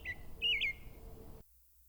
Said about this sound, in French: Il reste juste le merle qui chante encore au milieu de la journée. Tant mieux, c'est de lui dont j'ai besoin. Gorge rouge, à peine mouchetée. Il est là, à chercher des insectes dans le gazon.